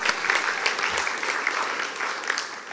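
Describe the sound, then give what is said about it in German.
Steady audience applause at a church service, a dense patter of many hands clapping at an even level throughout, with no voices standing out above it. “Können ihr Applaus geben”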